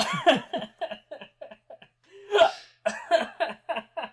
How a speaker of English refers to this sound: oh no, it's not a hiccup fit, is it? It is.